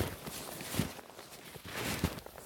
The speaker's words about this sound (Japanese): あとこの雪の上をスノーシューで歩くザクザクって音これもねいいですよね